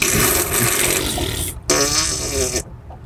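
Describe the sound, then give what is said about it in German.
A voice blows two loud, buzzy raspberry bursts imitating a fart, the first long and sputtering, the second shorter after a brief pause. “Stell dir vor, es gibt einen Freizeitpark, der stinkt nur nach Kacke und alles ist nach Pups.”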